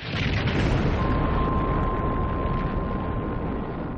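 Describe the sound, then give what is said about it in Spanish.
A massive atomic bomb explosion, dropped by a bomber crew on a mission, roars on as a deep, continuous rumble filling all four seconds, loud and unbroken, with a thin steady whine running through it and no voices. A kilometre from impact the temperature was five times that of the Sun's surface. “Pero esta explosión sería solo el principio.”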